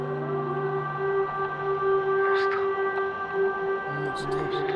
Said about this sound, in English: idea that I would hear this siren 18 years later. And this time, it won't be a drill.